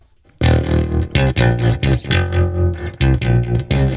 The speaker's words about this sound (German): Also den Jingle. Das war kurz. Den Jingle, den habe ich richtig lang nicht mehr gehört.